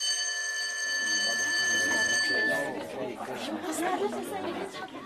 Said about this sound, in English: But school being as it is, by the time the last lesson was coming to an end, the whole school was bustling with the new gossip,